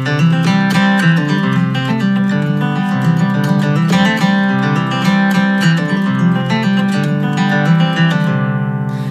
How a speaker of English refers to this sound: which has a really cool melodic cross picking sound. It sounds like this.